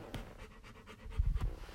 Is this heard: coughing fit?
no